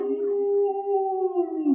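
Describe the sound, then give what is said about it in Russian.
A person imitates a wolf's howl: one long, steady, mournful note held fairly loud for almost two seconds, sliding slightly downward at the very end. “Волк и завыл.”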